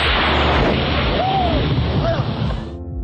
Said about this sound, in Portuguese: Os vidros vieram abaixo pelo estrondo causado pelo voo rasante de um avião militar.